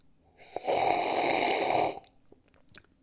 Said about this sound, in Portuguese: Deixa-me só beber um bocadinho de café. Estou a beber com barulho, não é? Porque senão vocês não percebem que eu estou a beber e este momento publicitário acaba por ficar xoxote. Cá vai.